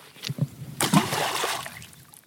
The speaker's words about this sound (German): Eins muss ich natürlich schon machen, weil wir vorher davon geredet haben, wir haben da so viele wunderschöne Steine umliegen und wir haben einen See vor uns. Ich glaube, ich muss einmal eine Handvoll einschmeißen, dass man mal hört, was da los ist.